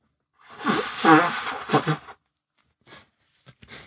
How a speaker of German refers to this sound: Ich muss mir mal kurz die Nase putzen.